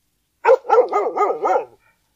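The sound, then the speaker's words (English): A dog barks loudly, played by a voice app as a dog-language translation of a spoken phrase: one sharp bark, then a quick run of four or five wavering, yowling barks in a steady rhythm, lasting about a second and a half with no talking. “Say translate and then your phrase to hear dog language.”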